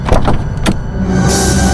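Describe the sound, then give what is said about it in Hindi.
A car door unlatches with a few sharp mechanical clicks and a clunk, followed by a steady airy hiss over a low hum, with no voices. It is the door of a car just parked at a house in bitter cold, with no one there. “घर पहुंचकर जैसे मैंने कार पार्क की और मैं अपने दरवाजे की तरफ आगे बढ़ा तो फिर से कार के डोर के खुलने की आवाज आई”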